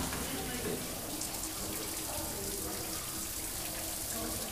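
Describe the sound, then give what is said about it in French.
Steady rush of shower water running continuously, a dense hiss with bright spattering on top, holding an even level throughout with no pauses. “Douche Je crois que ça restera la douche.”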